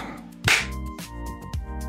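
One sharp, loud hand clap rings out close to the mic, followed by a couple of softer taps over a steady humming, tonal background.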